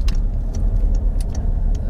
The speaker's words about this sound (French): Je fais attention parce que j'ai une moto là qui me colle, qui ne connaît pas son code, de la route, j'ai l'impression.